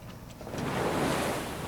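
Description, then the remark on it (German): Sea waves of the Arabian Sea wash onto the beach at Dandi in a steady, broad rush of surf that swells slightly louder midway, with a soft wind-like hiss underneath and no voices. “Eine Hand gräbt sich in den Strandsand von Dandi am Arabischen Meer.”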